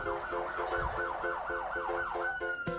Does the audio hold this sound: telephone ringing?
no